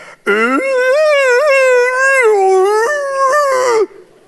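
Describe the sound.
A person's voice imitates an old cat's nighttime howl: one long, loud, drawn-out yowl lasting several seconds, wavering in pitch with a few dips before cutting off, alone.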